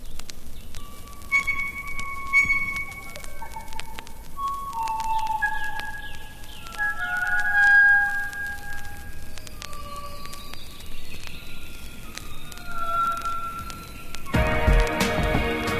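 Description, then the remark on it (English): North Island blue-wattled bird song: a slow series of long, pure, organ- and bell-like notes at shifting pitches, some gliding, over a steady hiss and ending with a short burst of noise. “Its delightful call includes a variety of rich organ and bell-like notes.”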